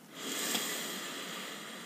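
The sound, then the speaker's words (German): A slow, deep, deliberate breath drawn in through the nose, a soft steady airy rush that swells in the first half-second and holds for nearly two seconds, quiet with no talking. “Atme mal ganz bewusst mit mir ein durch die Nase.”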